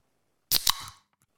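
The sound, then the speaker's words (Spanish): A short slurping sip from a drink, a quick burst of wet, noisy sound lasting about half a second, alone in an otherwise quiet moment. “un traguito, mi hermano, un ¿Eh?”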